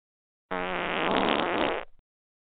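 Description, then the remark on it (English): A single loud, sustained fart sound effect lasting about a second and a half, played on a call-in radio show when a caller cannot be heard, starting abruptly with a buzzy, sputtering tone and trailing off with a brief flutter at the end. “you call into my show and we do not hear you, you will get this sound.”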